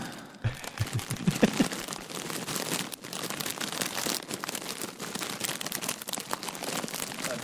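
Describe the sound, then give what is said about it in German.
Continuous crinkling and rustling as a crinkly popcorn bag is rubbed as ASMR for an audience, a dense crackly texture with irregular sharper crackles running steadily for several seconds, fairly soft, with no talking. “Ich werde ein bisschen an der Popcorn-Packung reiben.”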